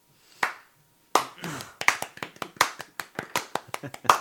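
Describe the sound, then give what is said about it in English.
A single sharp clap, a brief pause, then a quick burst of steady hand clapping, bright crisp claps at a brisk, slightly uneven pace, fairly loud throughout. “You have the clap.”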